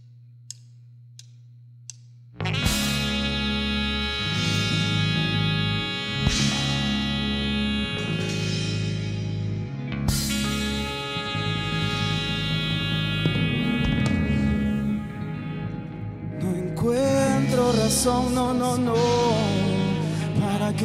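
A few faint clicks and a low hum give way to a loud, full song with steady rhythm, bass and layered harmonic instruments that plays on without pause.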